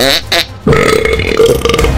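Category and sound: human body sound, burping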